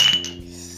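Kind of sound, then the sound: household object, glasses clinking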